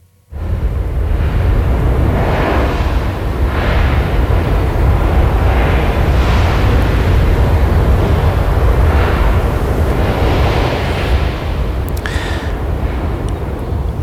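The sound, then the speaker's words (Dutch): A deep, continuous grinding rumble of an icebreaker smashing through sea ice in the cold Gulf of Bothnia, loud, with repeated heavier crunching surges and a few sharp cracks near the end. “Oké, okay, nou ja, er is ijs. En er is mhm. een ijsbreker en het is koud.”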